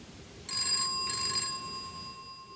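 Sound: telephone ringing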